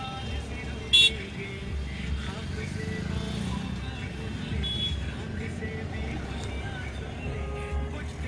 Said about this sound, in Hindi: कहीं ट्रैक्टर आ रहा है कहीं से टू व्हीलर आ रहा है कहीं से फोर व्हीलर आ रहा है एक चौराहे पर इतनी ज़्यादा भीड़ भड़का हो जाता है